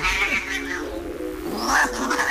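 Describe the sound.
A voice imitates a cat's meow with two drawn-out, wavering calls, the second rising higher, fairly loud with no other talking.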